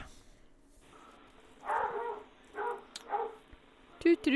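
A dog barks three times in quick succession, short, moderately loud yaps, with quiet background noise between them.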